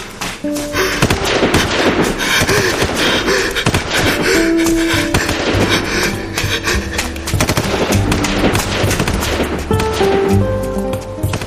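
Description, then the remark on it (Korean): Loud, rapid bursts of gunfire crackle almost nonstop behind a man fleeing on foot, repeated shots overlapping in dense volleys, with a steady tonal musical backdrop underneath and no voices. “등 뒤에서 총소리가 끈질긴 추적자처럼 그의 뒤를 따라붙는다.”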